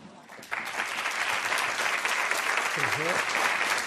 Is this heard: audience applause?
yes